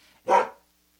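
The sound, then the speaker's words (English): A single sharp bark from Millie the dog, loud, sounding alone in an otherwise quiet moment with no one talking. “That's my dog Millie.”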